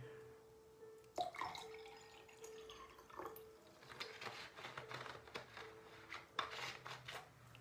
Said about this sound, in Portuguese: Separe o seu copo com água. Deixa eu encher aqui